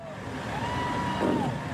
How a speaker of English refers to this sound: Hundreds of trucks and even more supporters, all part of a protest that first started its journey days ago in California